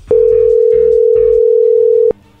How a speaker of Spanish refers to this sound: ahí se está marcando, no haga ruido, a ver qué sucede ahí